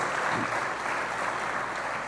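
A crowd claps loudly and steadily, a dense wash of many hands applauding together without pause for the whole stretch, with no talking over it.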